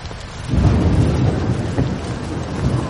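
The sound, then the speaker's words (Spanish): A thunderstorm in full force in a dense jungle: steady heavy rain hisses throughout while a deep rumble of thunder swells in and rolls on, loud, with no voices. “A duras penas, un grupo de hombres intenta hacerse paso a través de la espesura de la selva, en mitad de una tormenta.”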